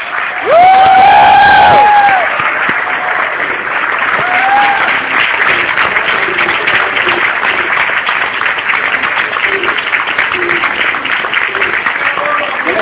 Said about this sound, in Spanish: Vamos a darle un fuerte aplauso al doctor Alberto Peña.